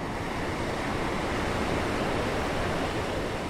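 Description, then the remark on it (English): Steady, broad rushing of sea waves washing onto the shore of the Azov Sea at Mariupol, Ukraine, a continuous roar with no pauses or distinct breaks, moderately loud, with no voices. “Mariupol is by the sea, and you could feel the change in air.”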